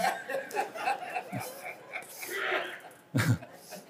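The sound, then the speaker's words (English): A single sharp sneeze bursts out near the end, brief and forceful, following a stretch of soft murmuring background noise. “God bless you.”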